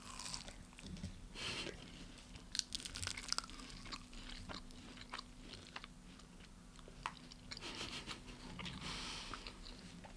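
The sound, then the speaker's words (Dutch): Crunchy chewing of pistachio nuts, with irregular crisp bites and grinding repeating over several seconds, loud, with no talking. “Ik neem ook een hapje.”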